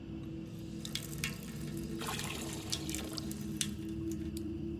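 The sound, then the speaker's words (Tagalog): Water runs steadily from a tap over a wound being rinsed of pus, a soft continuous rush with scattered splashes and drips over a low hum, fairly quiet, with no voices. “Agad kong tinapat sa tubig mula sa gripo ang sugat para mabanlawan ng nana.”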